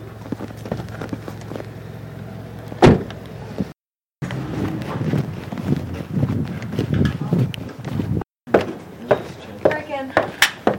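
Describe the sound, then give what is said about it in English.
A car door clicks open with a sharp latch sound, followed by rustling, thumps and clunks of someone climbing in, with muffled voices murmuring. “You just open the door, it's not hard.”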